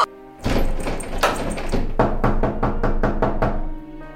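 Loud knocking on a closed door: a few heavy thumps, then a quick, steady run of about seven firm raps, with a faint hum underneath.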